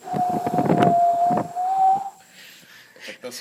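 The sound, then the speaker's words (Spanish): A howling wind sound effect from a film: a steady, whistling moan holds for about two seconds over rough, gusty rumbling, then drops away into a quieter breathy hiss. “y es que sí suena el efecto sonido.”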